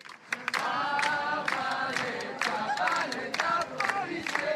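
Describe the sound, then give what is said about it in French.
A large protest crowd chants feminist and anti-police slogans and shouts together at a demonstration on the sidelines of a street theatre festival in France, many voices blending into a loud, sustained roar with sharp bursts of claps or bangs scattered throughout, continuous. “En marge du festival du théâtre de rue, la foule s'est réunie au son de chants féministes et anti-police.”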